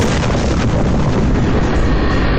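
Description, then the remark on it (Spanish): A heavy, deep bomb explosion rumbles on in a sustained, roaring boom, loud and low, the thunderous sound rolling steadily throughout as it echoes from mountain to mountain. “La primera explosión retumba de montaña en montaña con pavoroso estruendo.”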